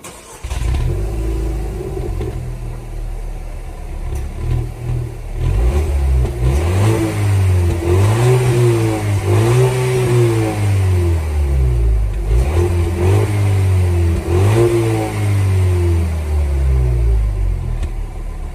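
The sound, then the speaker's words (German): A Dacia Duster's combustion car engine revs repeatedly, its pitch climbing and falling in a series of throttle blips over a steady, loud idle, with no talking. “Es ist auf jeden Fall ein Verbrenner, das habe ich äh, gleich rausgehört natürlich.”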